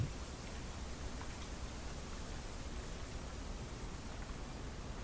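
A steady, soft bamboo forest ambience, a continuous hushed rustle like wind through leaves with faint scattered ticks, even in level throughout and without any voices.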